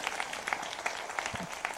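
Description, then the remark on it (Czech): A short burst of applause: many hands clapping in a dense, steady crackle at a fairly even level throughout, with no voices over it. “chtělo potlesk.”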